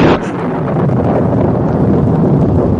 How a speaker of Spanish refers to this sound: Una tormenta. No puede ser. No hay ni una nube en el cielo.